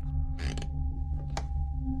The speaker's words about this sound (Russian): Добравшись до нужного дома, я тем не менее потратил немало времени, прежде чем понял, что ветхая скрипучая лестница, ведущая на второй этаж, и есть вход в жилище